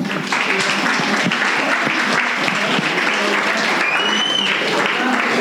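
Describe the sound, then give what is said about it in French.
A crowd bursts into sustained applause, dense and steady clapping for several seconds, with a few voices and cheers mixed in near the end. “Sérieux, allez-y, une bonne main d'applaudissement.”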